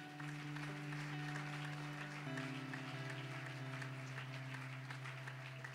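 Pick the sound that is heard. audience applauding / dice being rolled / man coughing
audience applauding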